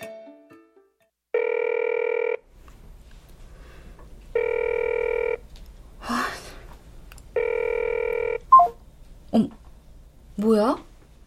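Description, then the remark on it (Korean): A telephone call to a parcel delivery driver about a TV not yet delivered rings unanswered: three steady, evenly spaced electronic ring tones, each about a second long, with brief throat-clearing or sighing noises between the later rings over a low hum. “연락해준다더니 전화도 안 받고.”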